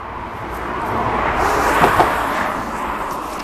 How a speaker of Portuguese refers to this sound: E veio um carro, esperem aí. Eu já continuo a falar.